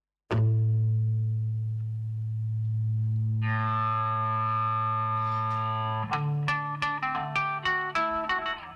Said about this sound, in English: the A string started feeding back through the amp, causing an ear catching distortion. That A string distortion was used purposely at the beginning